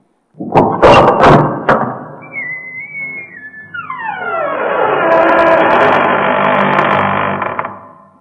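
A few sharp thuds and clunks, then a thin whistling tone and a long sliding, rushing sweep as the doors of the Shopping Serra Talhada mall open, settling into steady whooshing noise that fades out.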